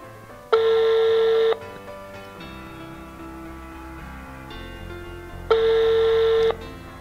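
Two long, steady phone ringback tones, each about a second, separated by a pause of several seconds, sounding over quiet background music with no one answering.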